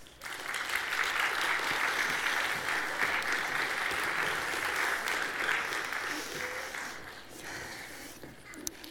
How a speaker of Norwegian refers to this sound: Kan de komme opp på podiet? Vi gir dem en applaus.